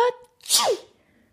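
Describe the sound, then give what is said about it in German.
A short voiced intake is followed by a single loud sneeze, a sharp breathy burst that quickly fades, likely a person acting out a dragon's sneeze. “Der Drachen muss niesen.”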